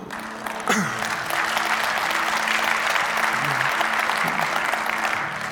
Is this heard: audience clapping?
yes